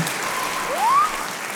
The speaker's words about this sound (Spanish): Aplausos, aplausos y ovación.